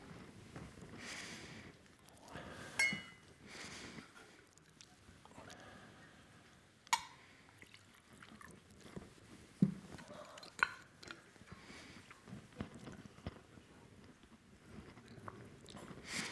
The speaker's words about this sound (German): Ich hole mal gerade ein Glas Wasser. Entschuldigung.